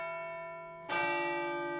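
A church bell rings twice, the first tone fading with a long shimmering hum before a second, louder strike rings out clearly, with no voices present.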